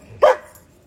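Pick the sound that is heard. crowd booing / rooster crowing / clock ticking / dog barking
dog barking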